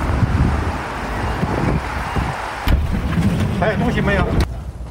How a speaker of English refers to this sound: We're getting in the car, we're headed to the train, we're headed to Shanghai.